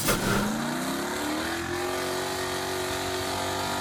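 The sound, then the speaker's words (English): A powerful monster truck engine revs loudly, its roar climbing in pitch and then holding at a steady, throaty drone for several seconds with no one talking. “all right more on that coming up uh, including monster trucks coming to the hammer”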